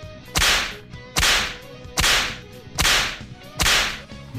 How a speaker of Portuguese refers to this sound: Pronto, já coloquei o barulho de chicote na edição.